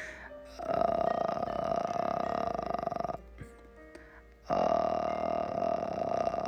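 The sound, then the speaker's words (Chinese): A voice makes slow, low vocal fry as a vocal-cord relaxation exercise, letting the voice pass slowly through the vocal cords to make them vibrate: two long, steady creaky drones, each lasting a few seconds with a crackling, purr-like texture, separated by a brief quieter pause. “就是让我们的声音缓慢的通过我们的嗯声带，然后去震颤它，让这个声音呃帮助我们很好的去放松我们的声带啊，比如我们有时候。”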